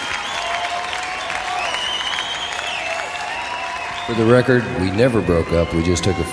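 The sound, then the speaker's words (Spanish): A crowd applauds with dense, steady clapping that fills the whole clip; partway through, a voice comes in and continues over the ongoing applause. “Bueno, pues que estos son aplausos.”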